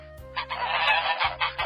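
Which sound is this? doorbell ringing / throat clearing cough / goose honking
goose honking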